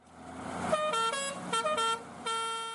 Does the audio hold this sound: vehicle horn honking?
yes